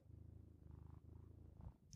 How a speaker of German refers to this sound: So, das muss jetzt reichen. Das für, waren ungefähr zehn Sekunden Katzenschnurren.